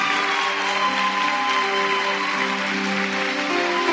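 An audience claps loudly and steadily for several seconds, a dense wash of applause over sustained keyboard-like musical tones, with no voices standing out.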